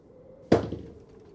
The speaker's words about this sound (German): So, meine lieben äh, Kerkerkumpels, Freunde, ähm, es würfelt jetzt mal bitte einer einen W8 von euch.